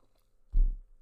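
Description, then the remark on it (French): A single brief gulp of beer, a soft, low, wet swallowing sound, with quiet surroundings before and after. “Bah, déjà, je vais prendre une, gorgée de, de, bière parce que quand tu parles beaucoup, tu as besoin de boire.”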